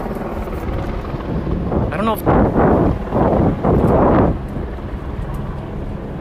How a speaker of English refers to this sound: I can feel. Can you see the trees moving? The wind from these helicopters?